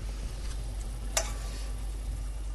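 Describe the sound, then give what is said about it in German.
A steady, soft sizzle of food searing in hot ordinary vegetable oil in a hot pan over the heat, with a faint crackle and one brief sharper pop partway through, no voices. “Die Pfanne muss heiß sein, das Öl auch.”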